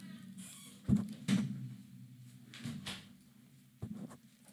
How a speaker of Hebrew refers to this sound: שנייה, סגור את הדלת, למה זה לא ייגמר. שנייה.